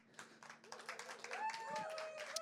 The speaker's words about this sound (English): Good, you can clap. I need you to clap this morning.